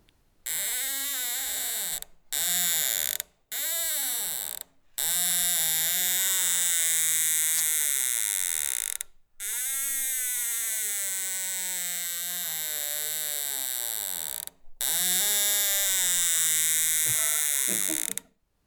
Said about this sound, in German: Dafür aber quietscht die Türe in meinem Zimmer gar außergewöhnlich. Wenn Scharniere Gefühle haben können, dann klingen die wahrscheinlich so.